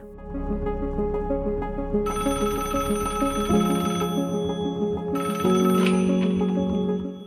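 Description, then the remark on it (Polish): A telephone rings steadily with a bright, repeating electronic trill, loud, layered over a dense tonal backdrop that thickens partway through. No one speaks. “Czasami życie jest tak proste jak jeden telefon.”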